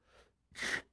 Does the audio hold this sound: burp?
yes